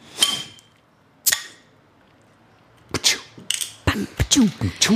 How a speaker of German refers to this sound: Das war jetzt natürlich auch toll, weil du den Öffner so auf die Flasche gehauen hast am Anfang so.